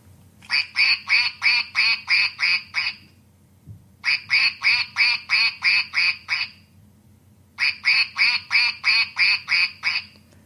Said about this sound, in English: Now, the other interesting thing about this duck is that if you squeeze it, it does this.